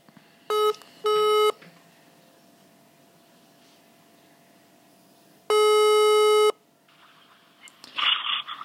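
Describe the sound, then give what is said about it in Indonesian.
A phone ringback tone from an evening call to a female friend plays over a quiet line: two short tones in quick succession, a pause of several seconds, then a longer steady tone. It's fairly clear, with faint rustling noise at the end. “Segmenku seperti biasa adalah menelpon teman-teman. Kali ini adalah seorang cewek lagi yang akan aku telepon.”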